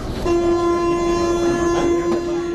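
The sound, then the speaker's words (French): A Paris metro train on the small line 7 bis running underground beneath the Buttes-Chaumont park, with a steady, loud mechanical whine held over a broad rumbling rush of noise, continuous throughout. “il nous emmène dans les profondeurs d'un petit bout du métro parisien”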